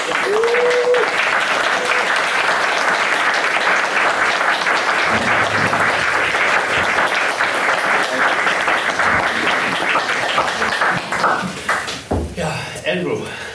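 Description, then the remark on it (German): A crowd claps loudly and steadily for about twelve seconds as an audience welcomes a guest, a dense wash of applause that thins out and tapers off near the end, with a few voices mixed in. “Ladies and Gentlemen, please welcome Andrew Wincott.”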